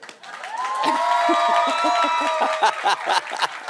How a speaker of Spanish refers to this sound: Muchas gracias, muchas gracias. Otro fuerte aplauso para mí